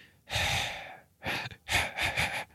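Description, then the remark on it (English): A voice imitates the rapid breathing of wolves: a long drawn breath, a short one, then a quick run of three or four panting huffs, loud and breathy with no words. “like this breathing kind of happening around you.”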